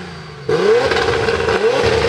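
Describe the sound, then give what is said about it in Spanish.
A low hum gives way to the engine of Julián Paz's Nissan GT-R R35 drift car, number 47, roaring in loud, revving with a rising whine that dips briefly and then climbs again as it starts the last run of a drift event. No one speaks. “Es el coche de, Julián Paz, con es un GTR 35, precioso.”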